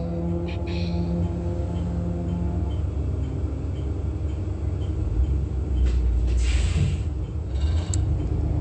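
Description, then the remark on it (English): A large truck crosses the path at about 7:43 a.m., rumbling past with a heavy low-frequency drone, growing louder toward the end with hissing air-brake-like bursts and a brief squeak. “That's a large truck um, crossing path.”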